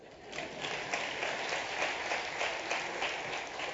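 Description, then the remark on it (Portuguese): A steady round of audience applause for a presenter's assistant being called up, many hands clapping at once in a dense, continuous patter that holds at a fairly even loudness for a few seconds, with no talking over it. “Uma salva de palmas para o André.”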